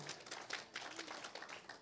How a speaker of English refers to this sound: Isn't that awesome? And so, yeah, you can clap. You go ahead and clap. There you go.